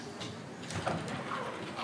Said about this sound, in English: Would it be okay if we close those doors to the, yes. to the um, more public area?